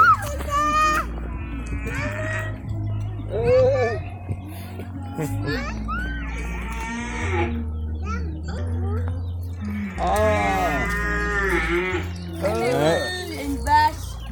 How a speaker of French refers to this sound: oh les cochons. Oh, il y a des bébés encore, ils sont trop